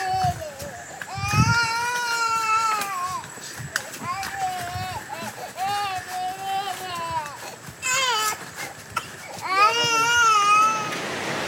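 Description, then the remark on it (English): Children crying loudly in the jungle, with long, high-pitched wails rising and falling in repeated bursts for several seconds, broken by short gasps and sobs. “Crying kids.”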